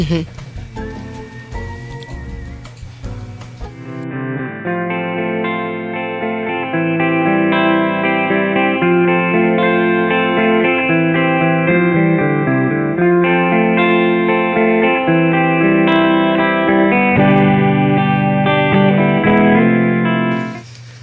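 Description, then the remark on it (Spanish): An electric guitar played through a Deluxe Vintera 2 tube combo amplifier rings out sustained chords and melodic notes at a steady, fairly loud level, with a warm, slightly chorused and reverberant tone. “Vamos a escuchar lo mismo, pero ahora con la, Deluxe Vintera 2.”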